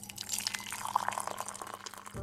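Coffee pours steadily into a cup for about two seconds, a bright, trickling splash over a low, constant hum, with no voices.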